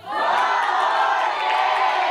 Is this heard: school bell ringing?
no